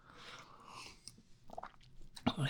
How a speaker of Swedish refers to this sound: Vi, kan, vi kanske ska ta lite vatten? Vi tar en klunk vatten.